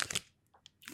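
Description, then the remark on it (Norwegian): Crisp crunching and chewing of a noodle wrap, a couple of loud bites at the start, then softer chews and a final crunch, heard alone with no talking. “er det der nudelwrap?”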